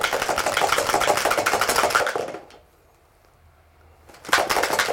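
Dice rattle and clatter in a loud, dense burst of rapid clicks for about two seconds, then a pause of near silence before another short rattling burst starts.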